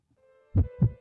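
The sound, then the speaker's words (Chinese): Two strong, low thumping beats of a baby son's heartbeat on an ultrasound monitor, evenly spaced about a quarter second apart, over a faint steady electronic hum. “这是我们儿子的心跳声，很强壮，好神奇呀！”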